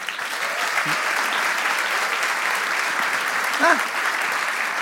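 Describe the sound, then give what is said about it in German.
Steady, dense applause from an audience for the host's wife, who is present in the audience, fills the whole stretch, a broad wash of clapping at even loudness, with a brief voiced call rising above it near the end. “Applaus für meine Frau.”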